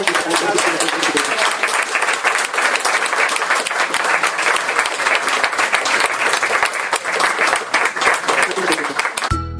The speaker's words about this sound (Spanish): Bueno, un aplauso.